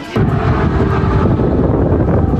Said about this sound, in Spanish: Hoy, el área que rodea la enorme torre de televisión en Kiev fue atacada y las explosiones se escuchan a cada instante, como esta en Kharkiv, donde un misil destruyó un edificio de gobierno.